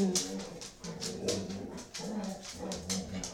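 Several dogs bark and yip at a cat outside in quick, overlapping bursts mixed with whining, fairly steady throughout, with no voices.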